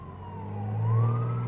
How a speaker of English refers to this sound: Well, we've got an ambulance coming and it's going to the hospital, so you can probably hear that in the background. He'll be shutting off his siren pretty soon as he goes by the hospital.